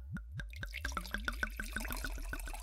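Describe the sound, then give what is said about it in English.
A woman pours wine from a bottle into a glass, a quick, steady series of bubbly gulps that speed up as the pour goes on, fairly soft, with no talking. “She poured me a glass of wine”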